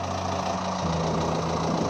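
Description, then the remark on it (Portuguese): A tractor engine runs steadily, a constant low throbbing rumble with a faint knocking pulse and no pauses, with no voices heard; people ride in the tractor's bucket to reach an isolated sheep-farming valley. “Para ir para ali, vocês viajaram de carro à noite, depois de snowmobile, até na pá de um trator vocês viajaram ali.”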